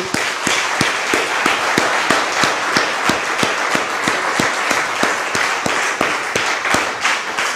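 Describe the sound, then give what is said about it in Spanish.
A church audience applauds to God during a sermon, many hands clapping at once in a dense, sustained wash with sharp, regular claps standing out throughout. No one speaks over it. “Denle un aplauso, por favor, a Dios.”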